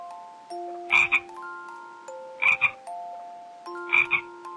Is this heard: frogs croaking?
yes